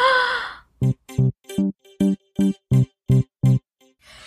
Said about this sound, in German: Moment mal, was ist das denn? Hört ihr das auch? Ich glaube, das ist unser Jingle.